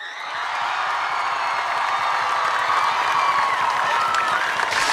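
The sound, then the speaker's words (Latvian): A large crowd at the Freedom Monument claps and cheers loudly and continuously for basketball player Artus Žagars after the World Cup tournament. It is a dense wall of applause with shouts mixed in, steady throughout with no pauses. “Dāmas un kungi, Čālis, kurš burtiski kā dimants iemirdzējās šī turnīra laikā un brīnišķīgi jau arī pirms turnīra visu atlases posmu, dāmas un kungi, skaļiem aplausiem!”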